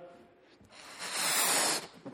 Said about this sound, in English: And here's what conceited is to illustrate it I have a balloon, I can blow it up.